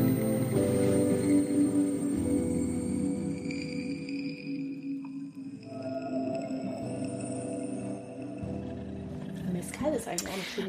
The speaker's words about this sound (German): danke, …, für die tolle Musik